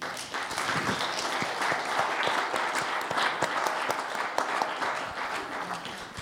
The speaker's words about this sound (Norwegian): jeg syns han skal få en applaus.